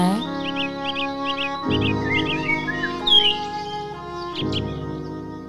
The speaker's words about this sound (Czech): No ty pipinky na konci, ty ptáčci, to bylo rozkošné.